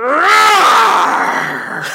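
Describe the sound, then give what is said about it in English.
A person gives a loud, drawn-out vocal imitation of a tiger roar, a strained, groaning growl that rises and slowly trails off over about two seconds. “Let me hear your tiger roar.”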